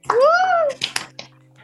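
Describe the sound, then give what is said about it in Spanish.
A brief vocal sound, then three sharp finger snaps offered as applause to welcome a guest in a studio, crisp and uneven in timing, with a low steady hum underneath. “Hacemos como los, eh, los aplausos intelectuales. Ah, los chasquidos.”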